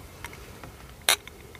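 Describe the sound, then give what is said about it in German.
Glasses clink in a toast with Balsasar Rosé Tonic with grapefruit: a single bright glass clink rings out sharply, with a few faint lighter taps before and after it over a soft background hum. “Und stoß den nochmal an für mich.”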